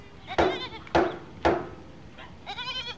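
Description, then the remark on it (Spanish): Sheep bleat in a quick series of about four calls, three sharp bursts followed by a longer, quavering bleat that wavers in pitch. No one speaks over them. “Todas las personas que están aquí me van a ayudar a sacar a toda esta borregada por esa puerta que da al estacionamiento.”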